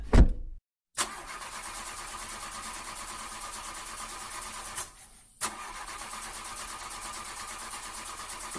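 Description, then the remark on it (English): A Lamborghini sports car engine cranks without catching: a brief turn, a pause, then a long steady whirring crank, a short break, and another sustained attempt. Loud, with no voices. “Behind me, you can see my new Lamborghini. Uh, what say we uh, get on in and have a little spin?”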